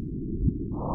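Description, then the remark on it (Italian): Gravitational waves from the collision of two black holes a billion years ago, converted into sound: a steady low rumbling hum with one brief, rising, thump-like chirp near the middle, no voices present. “Lo strano suono che sentite sotto è la conversione in onde sonore delle onde gravitazionali.”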